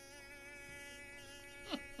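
A fly buzzes, a steady droning hum with a brief louder swell as it passes, no talking over it.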